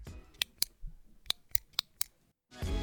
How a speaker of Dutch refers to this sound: Dit was een pen.